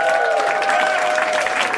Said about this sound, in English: every, everything sounds horrible. when it's followed by applause like that, I.